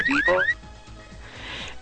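A loud electronic alarm blares in short rising whoops, two quick sweeps in the first half-second, then gives way to a softer background hiss with no talking.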